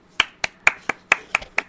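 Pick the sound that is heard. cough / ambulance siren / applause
applause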